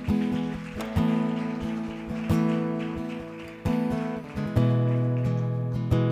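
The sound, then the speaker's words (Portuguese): A church audience applauds for Jesus steadily, a dense patter of clapping that continues under sustained keyboard chords, which change a few times, with no speech. “Aplauda Jesus, igreja.”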